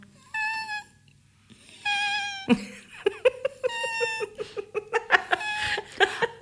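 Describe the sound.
A voice imitates the high-pitched whining of a dog lying in his bed with his head down: two drawn-out, wavering whines followed by a rapid series of short, breathy whimpers, fairly loud, with no words spoken.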